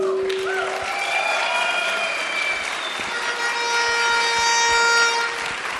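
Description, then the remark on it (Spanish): A crowd claps and cheers steadily for several seconds while sustained horn-like blasts and noisemakers sound over the applause, creating a loud, festive din with no speech, at an event in El Salvador, applauding first-time attendees. “Demos un aplauso a todos los que han venido por primera vez a este evento.”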